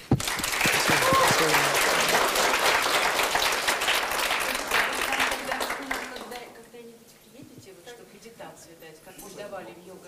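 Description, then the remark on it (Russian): Loud audience applause thanking the lecturer at the end of a lecture lasts about six seconds, dense clapping from many hands that then fades to quieter scattered sounds and murmuring voices. “Хотелось бы, чтобы вы немножко поблагодарили мастера.”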